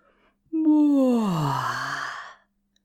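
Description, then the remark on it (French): A small snake gives a big, drawn-out yawn lasting about two seconds, fairly loud, the breathy voice sliding steadily downward in pitch before trailing off, with no talking around it. “À son grand étonnement, son petit serpent fait un grand bâillement.”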